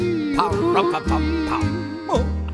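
A chorus of coyote howls and yips, several overlapping voices rising and wavering in long sustained cries, loud with no talking.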